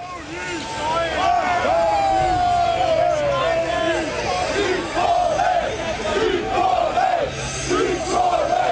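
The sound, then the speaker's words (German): A large crowd of FC St. Pauli football fans chants and sings together in the stadium, bidding farewell to the old south stand before it is rebuilt, with fireworks, in loud, sustained unison, voices rising and falling in rhythmic waves over a dense roar of crowd noise. “Der Südtribüne geht's zuerst an den Kragen, begleitet von Fans, Tränen und Feuerwerk.”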